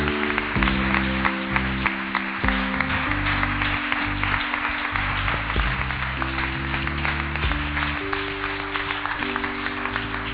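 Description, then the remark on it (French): A large crowd claps and cheers steadily for about ten seconds in acclamation of the Lord for the life of his servant, a dense wash of applause over sustained keyboard or organ chords that shift every couple of seconds. “On va porter encore une fois ta acclamation pour la vie de son serviteur,”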